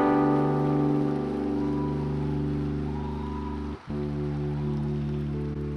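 A crowd applauds loudly for God for several seconds, a dense continuous clatter of many hands over a sustained keyboard drone, with a brief dip near the end and no talking.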